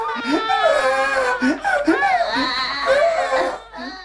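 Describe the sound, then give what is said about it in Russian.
A second set of newborn triplets, two boys and a girl, squeak and cry in steady, overlapping wails, their high, wavering pitches rising and falling. The crying goes on almost without a break before fading into a brief whimper at the end. “Слышь, вторые пищат, заогукали.”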